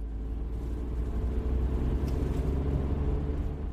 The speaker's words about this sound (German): Mit dem Auto fahren wir dann an einer anderen Fläche ganz in der Nähe vorbei, die der Beukenkäfer ebenfalls kahl gefressen hat.